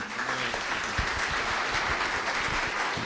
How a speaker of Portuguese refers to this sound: Vamos bater uma salva de palmas para ele?